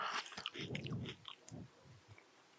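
Wet biting and chewing of watermelon: a juicy crunch up front, then several squelching chews that fade into quieter mouth sounds, with no talking.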